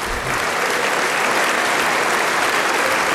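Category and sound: crowd, parliament applause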